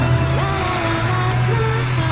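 A Massey Ferguson tractor engine runs steadily, a loud, continuous low diesel drone with a faint whine shifting slightly in pitch over a couple of seconds.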